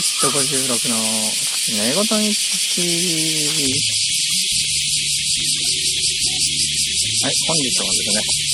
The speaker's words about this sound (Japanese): セミです。世界の半分以上がセミでできています。そういうところがお送りしているので、多少うるさいのはしょうがないです。